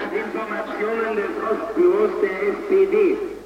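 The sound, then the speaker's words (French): Two cars fitted with loudspeakers meet at the same spot, one of them playing loud music, their tinny voices and tones overlapping into a steady, clashing din that swells slightly louder midway and continues without pause. “Et quand les deux voitures se retrouvent au même endroit, il en résulte une cacophonie extraordinaire.”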